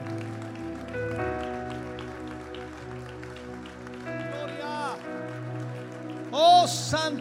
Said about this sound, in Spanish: De un aplauso de alabanza al Señor.